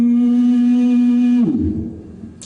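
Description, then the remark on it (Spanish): A person imitates an elephant's trumpet with one loud, sustained nasal blare that breaks into a rough, sputtering growl before fading. “como los elefantes.”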